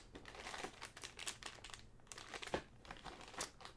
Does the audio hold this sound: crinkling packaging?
yes